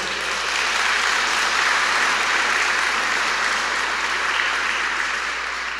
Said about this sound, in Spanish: ¿Lo creen que esta palabra es para nosotros? denle un fuerte aplauso al Señor por eso.